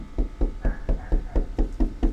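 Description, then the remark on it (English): A steady run of about nine solid knocks on a door, evenly spaced, each a dull, heavy thud with no voices over them. “if he knocks on the door, is it a good thing or a bad thing?”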